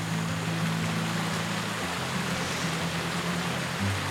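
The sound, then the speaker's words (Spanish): Water from the Cajuche spring, near Caño Cristales, flows in a steady, unbroken rush for a few seconds on a day of high cloud, an even hiss with a low droning hum underneath. No one speaks. “Bueno, este punto se llama el manantial del Cajuche, esta fuente hídrica.”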